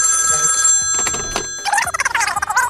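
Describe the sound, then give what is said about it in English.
A telephone calling sound effect rings with bright, steady electronic tones, followed by a rapid warbling trill that repeats in quick bursts, loud and without voices. “Can you get the calling sound effect ready, please?”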